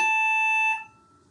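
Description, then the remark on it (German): A hotel room phone, a call from housekeeping asking whether service is needed, rings once with a loud, steady electronic trill that holds for under a second, then cuts off and leaves quiet. No one speaks. “es hat gerade Housekeeping angerufen, ob wir heute Service benötigen.”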